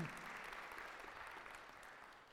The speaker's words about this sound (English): So I think you guys should all give yourselves a huge round of applause for just being incredible.